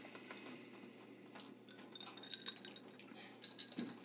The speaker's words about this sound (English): Let's cheers. Cheers to awesome friends and great years.